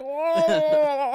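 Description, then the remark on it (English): A person mimics a strange, moaning yawn-like noise, likened to a Murloc from World of Warcraft: one drawn-out, wavering vocal tone with a gurgling, bubbly texture, lasting about a second, fairly loud. “He sounded like that, that, the Murloc from the Murloc from fucking World of Warcraft.”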